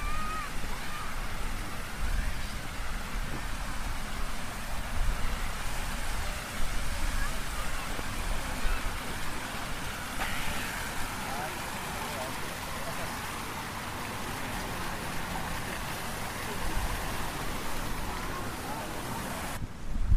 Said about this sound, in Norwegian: Det er nesten så vi skulle ha gått gjennom parken. Jeg vet ikke om det blir for mye bråk, men vi prøver. Vi prøver. Nå vi, går vi gjennom Nupenparken med alle fontenene, og som vanlig er det barn som leker i eh, vannet.